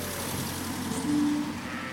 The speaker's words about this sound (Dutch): Ik word al ingehaald door auto's met Duitse kentekens